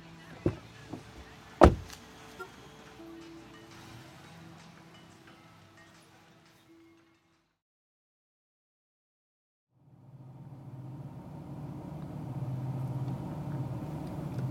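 Two sharp thuds as a car door is pulled shut, then a steady engine hum. After a brief silence, a low, building road rumble follows as the car drives away.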